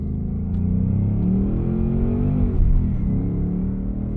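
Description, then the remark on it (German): An electric car accelerates with a synthetic engine sound, a loud, steady low hum of layered tones that climbs gradually in pitch over several seconds, with no voices. “Also er beschleunigt gut, das ist nicht schlecht, aber sie wirkt durch die Unterstützung des Sounds nochmal eindrucksvoller.”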